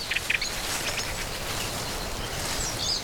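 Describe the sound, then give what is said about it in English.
Scattered bird chirps and high twittering calls ring out in a woodland over a steady outdoor hiss, a few brief bursts near the start and another cluster toward the end. “Birdsong, which interrupts you as you walk, and the rustling of the leaves underfoot, that crunch.”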